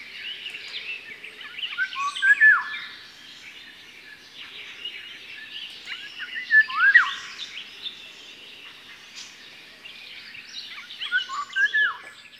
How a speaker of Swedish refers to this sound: Vi ska lyssna på sommargylling.